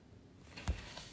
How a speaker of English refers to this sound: Is that a second going on? Right. The clock here has got me tripping.